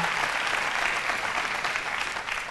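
An audience at a church service applauds together in a hand clap of praise, a dense, steady wash of many hands clapping that holds at an even level throughout, with no voices standing out above it.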